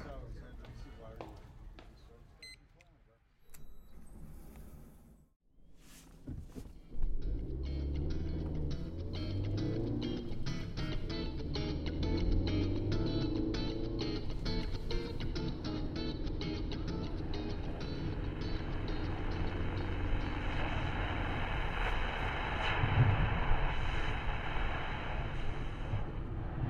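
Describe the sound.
Steady, low car engine rumble and road noise from inside a moving vehicle, rising after a quieter few seconds and holding constant, with faint indistinct voices now and then.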